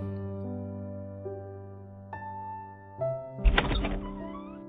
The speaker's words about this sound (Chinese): 我看着他开门关门，我知道，这次他不会再回来。